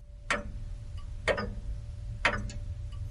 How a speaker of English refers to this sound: Scientists at the Long Now Foundation think long term, really long term. They're working on a clock that will go on ticking for your lifetime, your children's lifetime, their children's, and their children's, well, for about as long into the future